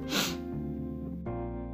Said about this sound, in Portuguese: Nossa, essa fungada deixou todo mundo de fone surdo. Desculpa.